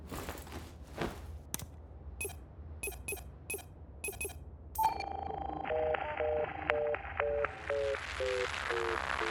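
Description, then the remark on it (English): Footsteps and small clinks give way to a steady phone tone inside a shrine on a mountain. A short series of beeping tones follows as a phone call is attempted, ending in a rising, hissy burst as the call fails with no service. “Let me call Lydia. Maybe she got through to the Queen.”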